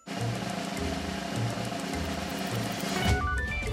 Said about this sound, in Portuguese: É isso mesmo. É um carro que não pega.